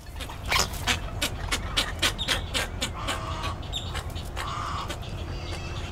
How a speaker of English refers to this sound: Those are some strange birds